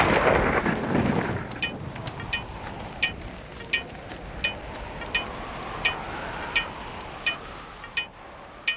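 A heavy rumble of thunder opens, then fades into a steady hiss of falling rain, with sharp, evenly spaced ticks repeating about every second throughout. No voices.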